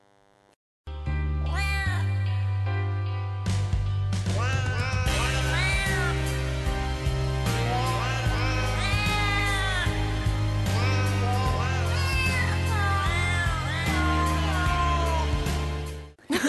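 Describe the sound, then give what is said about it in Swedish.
Cat meows rise and fall in pitch, strung together into a melody over a steady musical backing, like cats singing a song. Loud and continuous for the whole stretch, with no talking. “alltså jag tycker det är ju jättekul när man liksom, katter sjunger låtar.”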